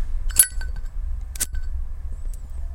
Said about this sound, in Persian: بچه صدای زیپون ببینی اصله یا نه نه نه گن زدی اصله یا نه بچه که زیپو بازن بچه زیپو باز میفهمن اصله یعنی واقعا اصله